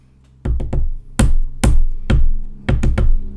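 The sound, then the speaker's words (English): SOS tapped out in Morse code with sharp knocks as a quiz answer: three quick taps, three slower, longer-ringing hits, then three quick taps again. The taps are loud and stand alone with no talking. “Dot dot dot dash dash dash dot dot dot. And can you tap that out?”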